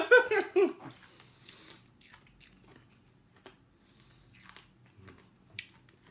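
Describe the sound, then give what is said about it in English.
A short laugh opens, then crunching and chewing of hard sherbet fruit sweets with sherbet centres, in green, orange, lemon and red flavours: irregular crisp bites and squishy mouth sounds, fairly quiet, with a sharper crunch near the end. “so sherbet fruits are very, very crunchy and very, very nice and sugary and sweety.”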